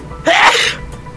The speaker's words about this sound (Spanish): No, ese es un estornudo. Y bien grande, sí.